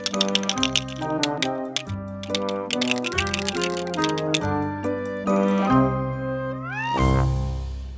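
Rapid, crisp clicking and snapping of a crab's giant pincers, set over a bouncy tuneful melody; the clicks stop after about five seconds as held notes and a rising swoop take over.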